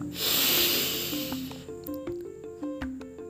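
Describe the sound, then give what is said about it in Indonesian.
A long, deep breath drawn in with a loud, airy rush that fades after about a second, followed by a soft, stepping melody of gentle tones. “Sambil menarik napas panjang”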